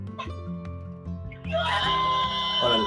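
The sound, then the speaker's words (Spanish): A rubber 'Gallo Esponja' toy rooster, unpacked from Sioux Falls, United States, is squeezed by its wing and lets out a loud, raspy, shrill squawk that starts partway through and holds to the end, over a steady low droning background. “A ver, apriétale su alita, jefa.”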